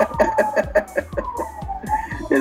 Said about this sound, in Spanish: Porque va a pasar la ambulancia.